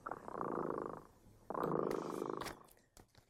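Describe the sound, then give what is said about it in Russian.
A cat, Kot Dremota, purrs in two long, steady rumbling stretches with a brief pause between them, followed by a few soft clicks and rustles as it trails off. No one speaks. “Кот Дремота запел свою песенку.”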